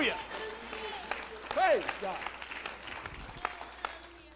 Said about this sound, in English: If you believe me, give the Lord a hand clap of praise. Hallelujah.